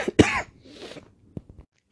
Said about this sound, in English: random coughing fit. Um, hope you didn't hear too much of that.